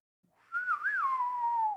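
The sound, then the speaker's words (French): A short, breathy whistled phrase as a person attempts a western tune: a wobbling rise and dip in pitch, then one long note that slowly sags and fades, like a shaky attempt at a tune. No talking. “Euh, euh, non, je suis pas un siffleur.”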